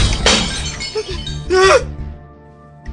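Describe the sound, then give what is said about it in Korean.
A drinking table crashes over and dishes shatter, two sharp bursts of breaking crockery and clinking, followed by a low steady hum as the noise dies away. “술상이 엎어졌다.”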